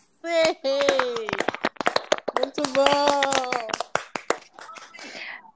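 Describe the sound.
A few people clap rapidly and steadily for several seconds, welcoming someone who has just joined, while voices exclaim and cheer over the applause, which thins out toward the end.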